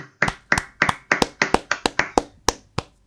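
A short round of applause from a few people, with around ten sharp, closely spaced claps that overlap briefly and then stop, fairly close and moderately loud.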